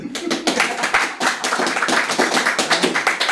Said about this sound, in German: Geben Sie mir einen winzigen Applaus, damit die Leute auch glauben, dass Sie da sind.